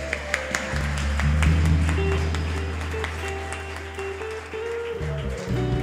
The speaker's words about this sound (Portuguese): Em o nome de Jesus. Aplauda o nome dele aí.